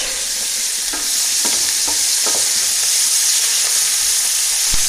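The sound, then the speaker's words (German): Olive oil and balsamic vinegar sizzle steadily in a hot frying pan, a bright crackling hiss, while a utensil scrapes and stirs with irregular knocks. Fairly loud, with no talking. “In die Pfanne.”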